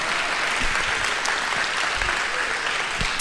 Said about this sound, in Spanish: Les decía a nuestros hermanos de la primera reunión, quiero reconocer, por ejemplo, el trabajo que están haciendo nuestros chicos de la alabanza. Dales un aplauso, por favor, a nuestros chicos de la, del grupo de alabanza.